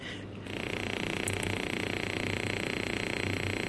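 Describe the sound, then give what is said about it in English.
A loud, steady electrical buzz with a rough, pulsing texture: very low frequency radio waves turned into sound, the buzz mostly interference from another radar system. On top are faint, high, sizzling crackles like frying bacon, which are lightning. It starts after a brief quieter moment and runs continuously. “The lightning is the very high, crackly bacon sounds on top of the loud buzz.”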